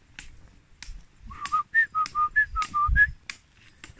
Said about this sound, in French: c'est l'oiseau qui me réveillait quand j'étais petite. Donc je crois que c'est une mésange.